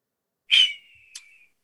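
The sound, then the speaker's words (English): A woman imitates an eagle screech: one shrill, piercing cry that starts loud and trails off into a thin sustained tone, with a brief sharp burst near the end, alone without talk. “Did she just do an eagle noise?”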